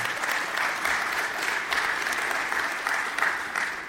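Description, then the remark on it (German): A lecture audience applauds steadily, a dense, continuous patter of many hands clapping at a fairly loud level throughout, with no voices standing out. “Ich wollte Sie, bevor Sie geklatscht haben, und Sie haben schon fast zugestimmt, ähm, fragen, ob Sie mit mir diese Vision teilen.”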